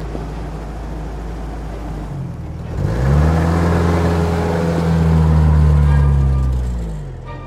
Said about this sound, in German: Das gelbe Auto russischer Bauart nähert sich im Schritttempo dem Schlagbaum. Der Fahrer hat angehalten, kurbelt das Fenster herunter.